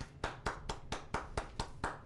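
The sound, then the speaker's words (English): A steady run of hand claps welcoming a guest, about nine sharp slaps at an even, brisk pace, fairly loud, inside a car, with no voices. “It sounds like it's really loud. They clap in the car.”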